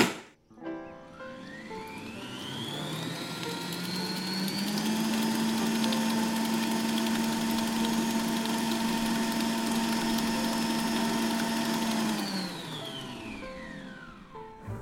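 A stand mixer beats butter and sugar, its motor whirring up in pitch over a few seconds, holding a steady loud hum and whine, then winding down near the end. No talking.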